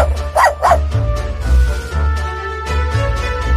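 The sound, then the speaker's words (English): A dog gives two quick, sharp barks in rapid succession near the start, clear, then falls quiet over a steady low background hum. “Aren't you a lovely dog?”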